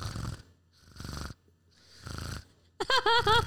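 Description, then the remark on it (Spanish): A voice mimics someone's rapid snoring breaths, with three quick, raspy snore-like breaths in a steady rhythm, fairly loud, followed by a brief burst of talking. “Y tus ronquidos, eh, tu, tu respiración iba como que demasiado rápido.”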